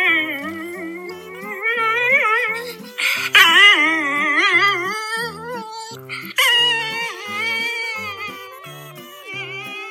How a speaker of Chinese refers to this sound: 最后的彩蛋是，请大家欣赏栗子家的狗狗的歌声。